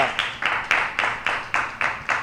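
Applause from a group, a steady wash of clapping with a clear rhythmic pulse of about four beats per second, moderately loud with no voices over it.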